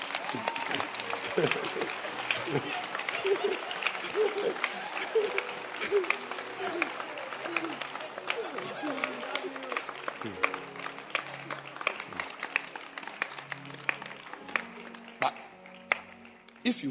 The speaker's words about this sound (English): My church members don't owe me a hand clap. But if I say clap your hands and you don't clap, hmm.